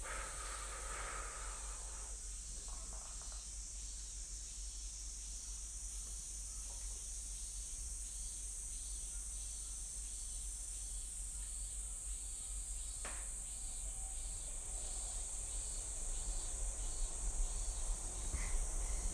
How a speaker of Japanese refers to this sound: うん、これはミンミンゼミとクマゼミかなミンミンミンミンって言ってるやつがミンミンゼミで、なんかシーって言ってるのがクマゼミかな